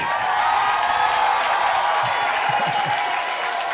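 A crowd claps steadily and densely for a few seconds, a continuous loud patter of many hands with no one speaking over it.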